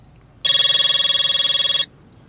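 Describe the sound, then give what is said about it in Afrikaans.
A cellphone rings with a steady, bright electronic trill, a single loud burst of about one and a half seconds with fast pulsing, with no talking over it. “net 'n oomblik my selfoon lui nou ook.”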